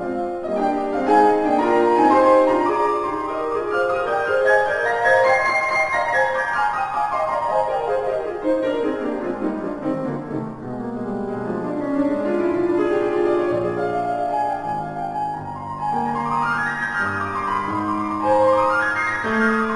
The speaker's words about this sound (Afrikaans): Ons gesels juis oor 'n konsert wat jy doen met die klavier, maar mag ek vra dat jy gou vir die luisteraars eers 'n stukkie speel dat ons kan hoor hoe klink die nuwe klavier? Ja, maar reg, ek speel so 'n bietjie van die Beethoven.